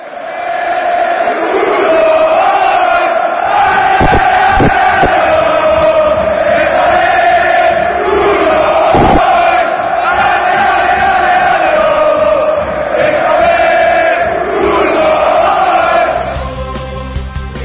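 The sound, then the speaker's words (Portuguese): A dense mass of Borussia Dortmund football supporters chanting in unison in a stadium, a loud sustained roar of many voices holding a steady sung melody, with a few sharp thumps breaking through around the middle. “Então, nós vamos ouvir, já para preparar o ouvido e o coração, para o assunto muralha, que vai entrar em voga daqui a pouquinho no programa nas Surfistas.”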